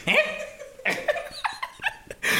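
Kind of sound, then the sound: animal, dog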